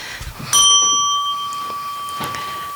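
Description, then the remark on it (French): A doorbell rings once, loud, its bright chime striking sharply and then lingering in a long, slowly fading tone with no voices over it. “Faudra me l'enlever cette sonnette parce que sinon je vais.”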